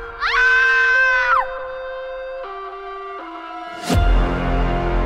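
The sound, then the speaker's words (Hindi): A mother who has just answered the home telephone lets out a single loud, shrill scream of shock lasting about a second over a steady droning tone and collapses; a few seconds later a heavy booming thud rumbles in. “घर का फोन बजा माँ ने फोन उठाया और एक ही पल बाद चीख मार के गिर पड़ी”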